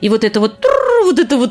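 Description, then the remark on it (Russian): A person imitates the gobbling of turkeys from a large turkey farm in the courtyard of the USSR embassy: a few quick, choppy warbling bursts, then a longer wavering gobble that rises and falls, fairly loud and unaccompanied. “вот их вот это пение индюков, я очень хорошо помню”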